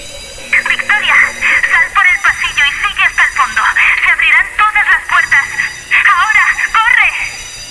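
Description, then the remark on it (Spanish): A fire alarm rings steadily in the background while excited voices talk loudly over it, nearly continuous, with the shrill ringing persisting underneath throughout. “Pero, ¿quién ha puesto la alarma antiincendios en marcha?”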